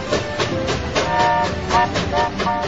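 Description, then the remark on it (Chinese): A train bound for Sunlight Island (日光岛) running steadily along the tracks, with a continuous loud rumble, a rhythmic clickety-clack of wheels and faint metallic whining tones on top. No voices. “迪克又上了去日光岛的火车。”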